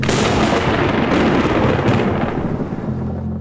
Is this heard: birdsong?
no